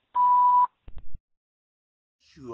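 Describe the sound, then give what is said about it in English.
A steady electronic voicemail answering machine beep sounds for about half a second, followed by a couple of soft clicks and thumps, then a voice begins speaking near the end. “name and phone number after the beep.”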